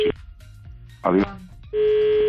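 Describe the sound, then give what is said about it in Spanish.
A steady, buzzy telephone line tone sounds briefly, breaks off for a short voice fragment, then returns loud and continuous through the end. “perdona, está el teléfono que no damos abasto en este momento.”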